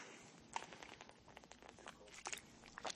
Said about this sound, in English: Okay, I'm just going to take a sip of water.